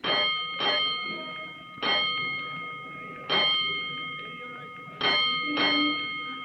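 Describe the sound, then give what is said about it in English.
A firehouse alarm bell for Engine Company 209 clangs six times in uneven groups, paired strikes separated by pauses, each loud stroke ringing on with a bright metallic tone before the next. “But before he can report to his officer, he hears an alarm, and he leaps aboard 209 as the great engine prepares to roll.”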